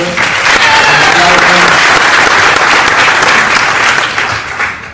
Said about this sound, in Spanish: Creo que no han llegado, pero pues un aplauso para ellos.